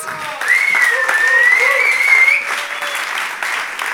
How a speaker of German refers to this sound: Darum gebt doch diesen drei Wunderbaren einen fetten Applaus.